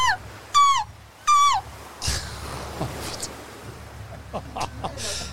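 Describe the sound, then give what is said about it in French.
Two loud, harsh seagull cries ring out one right after the other at a beach, then give way to a steady wash of beach noise with faint scattered sounds. “Eh, les mouettes.”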